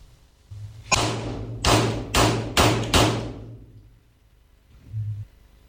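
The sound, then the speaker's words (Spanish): Five sharp gunshots ring out in quick, slightly uneven succession during precision target shooting practice in the early morning hours, each with a brief echoing tail, over a low steady hum, followed by a muffled thump. No one speaks. “este que va a escuchar usted son los balazos de Sandra Cuevas cuando está practicando tiro”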